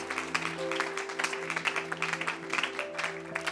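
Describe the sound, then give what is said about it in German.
An audience at a church service applauds people who have just decided to accept Jesus, a dense patter of many hands clapping steadily at moderate volume over a low sustained hum with faint tonal lines. “Herr, lass uns einen Applaus geben.”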